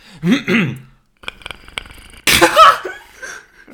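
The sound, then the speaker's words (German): A person makes a series of throaty vocal noises imitating the growl of the Predator from the film: short guttural bursts, a rapid rattling clicking stretch, then a loud harsh breathy roar. “Nein, das soll der Predator sein.”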